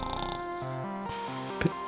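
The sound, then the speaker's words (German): A steady, droning snore with a buzzy, tonal quality that shifts pitch a few times, ending in a short, rougher snort. No one speaks. “hast du schon so eine Schnarchinex-Matratze?”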